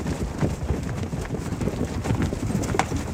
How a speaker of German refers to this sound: Am Ende einer großen Freifläche steht ein knappes Dutzend Pferde. Sie tragen eine auffällige Stehmähne und ihr Körperbau ist etwas kleiner und gedrungener als bei üblichen Reitpferden.